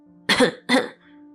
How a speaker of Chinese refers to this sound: 只能先借着咳嗽把意识拉回现实。